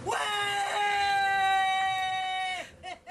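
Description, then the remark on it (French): A single long, loud shout of relief from Vendée Globe race leader Yannick Bestaven as he rounds Cape Horn, held high and strained for about two and a half seconds, breaking off into a few short breathy gasps at the end. “Bon, c'est clairement mythique hein, quand on entend le cri du leader Yannick Bestaven.”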